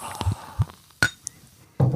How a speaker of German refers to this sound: Und natürlich ein feines Urhell. Das machen wir jetzt auch noch auf. Oh die helle Freude und vor allem, wenn das allein schon ins Glas fließt.